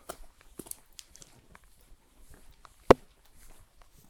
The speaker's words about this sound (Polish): Oj, nie kapać mi tu na mikrofon. No ale z drzew leci, z drzew jeszcze leci. Parę razy headshot siadł. Ale to nic. Nie pada.